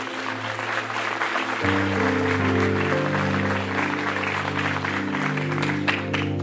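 A large crowd applauds God loudly and steadily for several seconds while sustained keyboard or organ chords play underneath, shifting to new notes partway through.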